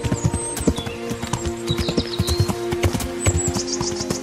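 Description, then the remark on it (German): Horse hooves clip-clop in a steady, brisk rhythm, as if riding at a trot, over sustained background music with occasional high bird chirps, from a video game scene of riding a horse through medieval Bohemia. “diese Musik erklingt in Kingdom Come Deliverance, wenn du durch das mittelalterliche Böhmen reitest”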